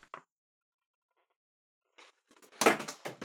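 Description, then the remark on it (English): A pen drops onto a hard surface, giving a quick sharp clatter with a few small bounces after a brief tap and a stretch of near silence. “I dropped my pen. I, I do apologize if that was noisy”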